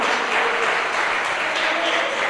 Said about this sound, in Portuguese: Glórias a Deus, vamos aplaudir, Senhor.